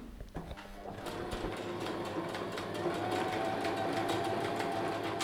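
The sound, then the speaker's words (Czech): A sewing machine runs steadily in a studio, stitching a plush handbag, its rapid mechanical stitching forming a continuous rattling drone that grows slightly louder, with faint room noise and no speech. “Slyšíte hluk šicího stroje?”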